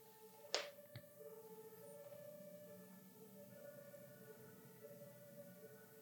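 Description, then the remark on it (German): Faint fire engine and police sirens hold steady tones in the background throughout, with a single sharp click near the start; no one speaks. “Ich weiß nicht, ob du die Feuerwehr und die Polizei und all das hörst im Hintergrund.”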